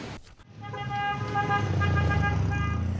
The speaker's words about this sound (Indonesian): Aduh, jangan lari. Banyak mobil itu.